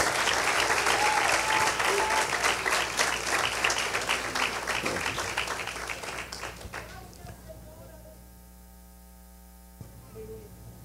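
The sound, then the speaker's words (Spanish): A crowd applauds loudly with dense, steady clapping for about six seconds, then the applause fades away, leaving a low electrical hum and faint static. “Ese aplauso dáselo fuerte al Rey de Reyes y al Señor de Señores.”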